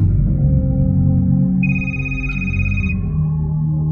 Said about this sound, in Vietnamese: Chuông điện thoại của nó đổ Nó lo lắng đánh rơi chiếc máy xuống đất